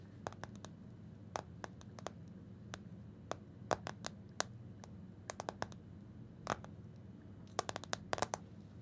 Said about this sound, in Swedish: Men långsamma tapping-ljud, som det kallas för, ska ja. liksom simulera typ droppljud. Okay. Eh, och det kan låta typ så här.